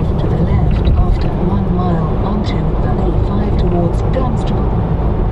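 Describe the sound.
A synthesized satnav voice gives a short route instruction to leave the motorway over the steady, loud rumble of a car with a 204 PS four-cylinder turbo engine cruising at speed on a motorway, the road and engine noise dominating throughout.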